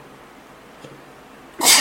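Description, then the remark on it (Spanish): A single sharp sneeze, caused by an allergy to an apron, bursts out near the end after a quiet stretch, loud, with a broad hissing spray of noise. “Salud.”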